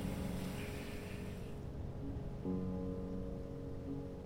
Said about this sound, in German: Im Regen laufe ich zurück durchs Gewerbegebiet zum Bahnhof von Liestal. Erst im Zug merke ich, wie durchnässt ich bin.